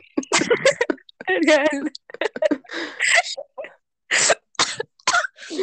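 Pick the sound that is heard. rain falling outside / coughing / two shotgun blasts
coughing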